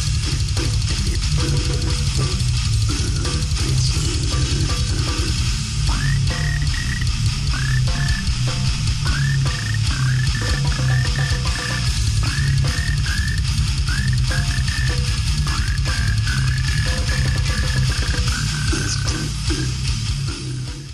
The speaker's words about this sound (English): It sounds like those guys have their doctorate in guttural slam. That's it's just like everything everything is in the right place. Yeah, uh, drum sound mentioned. I concur. That's a perfect drum sound for what they're doing.